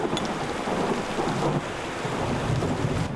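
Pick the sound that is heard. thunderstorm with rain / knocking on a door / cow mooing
thunderstorm with rain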